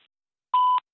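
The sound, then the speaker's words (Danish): A single steady electronic voicemail beep before recording a message, a clear mid-pitched tone lasting about a quarter second, sounds alone after a moment of silence, crisp. “Altså, Jonas, kom nu med det, Bip.”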